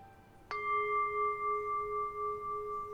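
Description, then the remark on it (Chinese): A singing bowl is struck once during a one-on-one sound therapy session, giving a sharp attack followed by a long, steady ringing tone with several sustained overtones and a gentle, slow wavering pulse as it sustains. “但是出乎意料的，当波声响起时，我像是掉进了声音的漩涡里。”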